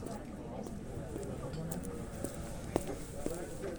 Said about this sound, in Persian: صدای همه مردمی رو میشنوم که وارد بازارچه میشن صدای کفش های پاشن بلند بر سنگ فرش کف بازار